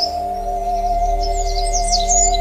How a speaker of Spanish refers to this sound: Si están en un bosque, sientan el viento rozando su cara. Escuchen el cantar de los pajaritos y el sonido de los árboles meciéndose.